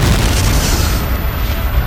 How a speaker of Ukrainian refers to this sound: Раптом почувся гучний хлопок